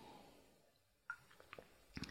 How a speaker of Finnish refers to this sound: Nyt mä maiskutan niin paljon, että mä juon vähän vettä. Hetki pieni